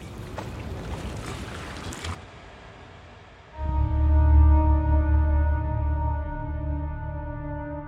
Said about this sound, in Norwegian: Natten kom, og de kunne legge seg mens båten vugga lett i vannet.